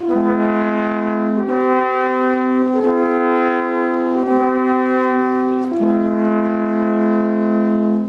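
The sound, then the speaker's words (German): Austrian alphorns of spruce wood, about 3.60 metres long, played by alphorn groups at a market selling wood, straw and ceramic goods, sound long, sustained low notes in harmony, steady and loud, with the pitch shifting together at a few points to new held chords. No voices are heard. “Und dazwischen ertönt ein von weitem dumpfer, von nahem aber sehr warmer Ton der Alphornbläser.”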